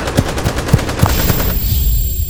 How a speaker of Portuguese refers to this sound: Ele atirou em mim.